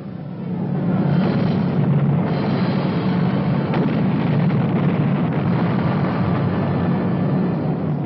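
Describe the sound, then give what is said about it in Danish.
Bombs dropped against Nazi U-boats in the North Atlantic by the Army Air Forces' anti-submarine command in summer 1943 explode, making a heavy, sustained low roar that swells in after a brief moment and rumbles on steadily and loudly, with no distinct separate blasts and no voices. “Our exploding bombs were clearing the North Atlantic of the Nazi U-boat threat.”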